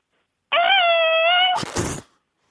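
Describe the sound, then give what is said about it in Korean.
A wall-mounted automatic sensor hand sanitizer dispenser runs a steady, high, buzzing motor whine for about a second, then releases a short, breathy spray burst that quickly stops. No one speaks. “쇼핑몰 같은 데 가면 벽에 붙어 있는 자동으로 이렇게 감지해서 나오는 약간 고급진 손세 정제 예, 예, 예.”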